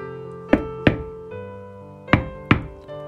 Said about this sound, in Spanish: ¿Quién toca el portón? ¿Quién está a la puerta?